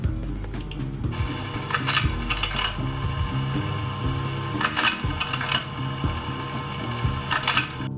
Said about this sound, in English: I thought it was going to be a photocopier, but it's not a photocopier, it's no. a project- projector